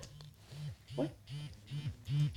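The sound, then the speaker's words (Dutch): A vibrating device, already switched on and vibrating hard through its different settings, buzzes in a steady pulsing pattern, about six short low-pitched bursts in quick succession, moderately loud, with no one speaking. “Hij staat al aan, hoor je dat niet? Hoor je die verschillende standen?”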